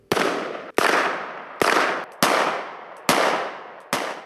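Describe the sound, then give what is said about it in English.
Six loud, sharp gunshots ring out at uneven intervals about half a second to a second apart, each crack trailing off in a long, rumbling decay, with no voices. Bailey fires at a piece of paper tacked to a tree that reads "I will not comply". “Bailey takes aim and shoots at a piece of paper tacked to a tree that said, I will not comply.”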